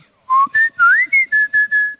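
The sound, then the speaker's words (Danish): A person in a studio whistles along to birdsong, a quick run of about seven short, clear notes, rising and falling like a melodic bird call, fairly loud with no talking. “Så begynder studieverdenen i øvrigt også at fløjte med.”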